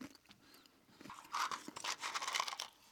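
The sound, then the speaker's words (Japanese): Crunching of a crisp chocolate-coated snack being chewed in a blindfolded taste test, with brittle, crackly bites that start quietly and grow louder and denser in a steady, repeated rhythm. No one talks. “これ皆さんどんなつもりで聞いてます今 ただひたすらポリポリポリポリ”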